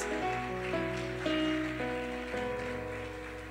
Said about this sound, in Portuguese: Você pode dar uma salva de palmas por isso?